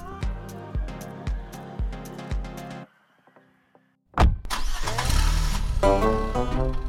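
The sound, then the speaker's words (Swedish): A car engine cranks in a series of rhythmic starter turns, falls briefly quiet, then catches and roars to life, settling into a loud, steady running rumble. “Det är bäst att ta bilen för landsortsbussen går bara två gånger om dagen.”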